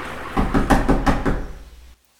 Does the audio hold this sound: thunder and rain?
no